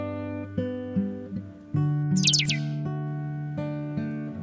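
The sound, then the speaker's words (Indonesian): A mobile phone SMS ringtone plays alone, a clear electronic melody of sustained tones changing every half second, with a brief burst of high warbling chirps in the middle. “Aku segera mengecek hpku yang barusan tiba-tiba berbunyi ringtone SMS.”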